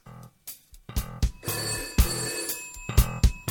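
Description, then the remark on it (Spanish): A telephone bell rings loudly in rapid, repeated metallic bursts with a sustained clanging tone, continuing for several seconds with no voices. “Bueno, ya tenemos aquí la llamada.”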